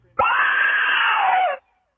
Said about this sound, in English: He, he can take this meta because he's got the soundboard inside of the voicemails. He, he could do all sorts of different screams.